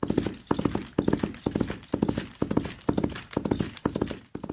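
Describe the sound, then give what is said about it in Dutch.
A man in an Instagram video knocks two cobblestones together on a bed of straw to mimic galloping horse hooves: steady three-beat thuds repeating in a quick gallop rhythm, with no voices. “Het is een man die op Instagram met twee kasseien op een eh, bedje van stro het geluid eh, nadoet van een galopperend ah. paard.”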